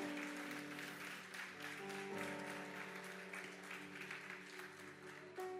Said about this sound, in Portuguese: Quem acredita que é bom, dá uma linda salva de palmas para Jesus.